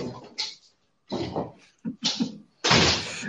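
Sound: door being closed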